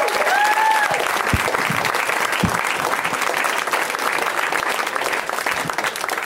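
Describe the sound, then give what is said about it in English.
A crowd applauds a performer steadily, a dense, loud wash of clapping hands that holds for several seconds with a few scattered whoops rising above it. “everybody, let him hear one.”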